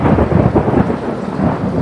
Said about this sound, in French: Au premier jour de l'automne, la pluie vient décoiffer la forêt. Le tonnerre gronde et soudain, dans un bruit assourdissant, la foudre s'abat sur le vieux pommier.